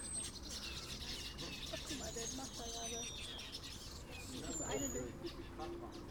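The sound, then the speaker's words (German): A dense chorus of many small birds, a flock of black-headed weavers flying in groups back and forth across an aviary, chirping and whistling continuously with overlapping high calls, some duck-like notes and faint murmuring voices in the background. “Ein, ein Schwarm Vögel fliegt hier immer von links nach rechts oder von Baum zu Begrenzung des Geheges.”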